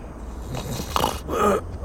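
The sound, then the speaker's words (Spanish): A man snores while asleep in a parked vehicle in a dark alley, a rough, snorting inhale followed by a longer rasping breath, over a low steady background hum. “… roncaba a mi lado”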